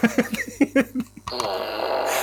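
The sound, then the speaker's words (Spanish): Short choppy bursts give way to a long, buzzy, sputtering fart noise from a push-button novelty fart machine, fairly loud, stretching for about a second. “Tengo una máquina de pedos.”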